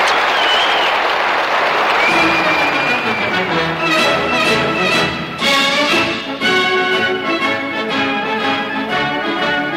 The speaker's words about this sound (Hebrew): אני מתכבד לפתוח בזה את תעלת קזימיר בלאומי! (מחיאות כפיים)